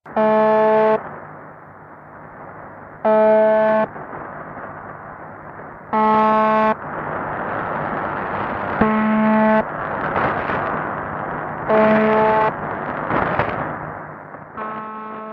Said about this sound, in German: Radio Vulkan sendet einen Brummton, der circa 25 Mal pro Minute brummt, also wiederholt wird.